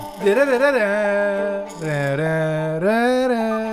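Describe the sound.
A lone voice hums or sings a wordless, wavering melody with a few sustained, sliding notes, imitating the theme from the Western film The Good, the Bad and the Ugly. Moderately loud.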